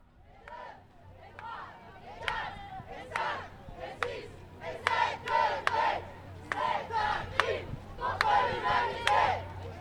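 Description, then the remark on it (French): A large crowd at a climate march in Lyon chants in loud, rhythmic bursts, voices rising together in repeated phrases punctuated by sharp claps or beats, with steady outdoor rumble underneath. “C'est la première marche pour le climat que j'effectue ici à Lyon.”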